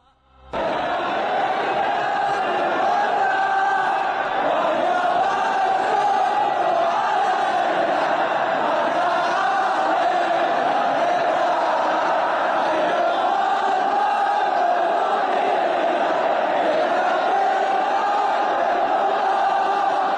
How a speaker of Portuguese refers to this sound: Al Ittihad de Jeddah, que é o clube mais antigo da Arábia Saudita, fundado em 1927, e essa cidade fica justamente no caminho sagrado entre Meca e Medina, né? Então vamos ouvir aí a torcida do semifinalista do Mundial de Clubes de 2005 cantando.